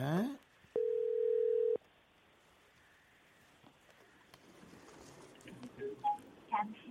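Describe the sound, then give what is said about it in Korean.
A single steady electronic telephone tone sounds for about a second, loud and mid-pitched, as a radio show connects a phone call to a listener, followed by quiet line hiss and faint murmuring that builds slightly toward the end. “전화 연결해 주세요.”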